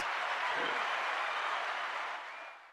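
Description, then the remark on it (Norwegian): A live audience applauds and cheers in a dense, steady burst of clapping that stays loud before tapering off slightly at the end, with no one speaking over it. “Ja, Du må altså, publikum roe seg litt her.”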